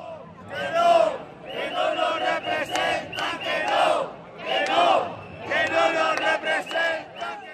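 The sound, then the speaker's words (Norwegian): A crowd of protesters in Madrid, Spain, demonstrating around parliament against state austerity measures, chants slogans in loud, rhythmic bursts in front of police cars with flashing blue lights, barriers and riot police. Many voices shout together in repeated phrases separated by brief pauses. “Taktfaste rop mot en mur av politibiler med blinkende blålys, sperringer og opprørspoliti.”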